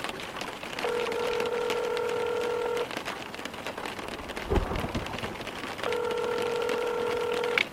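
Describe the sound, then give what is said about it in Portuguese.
Two long, steady phone dialing tones, each lasting about two seconds with a pause between, as a call is placed on speakerphone to a professor during a storm, sounding clearly over a constant hiss of rain, with a brief thump in the gap. “Primeiro vamos ligar para o professor.”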